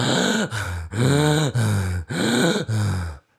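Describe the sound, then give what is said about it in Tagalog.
A person imitates heavy, exhausted panting after jiu-jitsu sparring rounds: about six loud, voiced breaths in a quick, steady rhythm, with no talking. “Alam mo yung hingal na parang”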